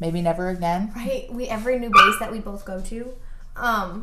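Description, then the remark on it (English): A dog gives a single sharp bark in the middle of continuous talking, loud, briefly cutting through the conversation before the voices carry on. “that was my dog guys.”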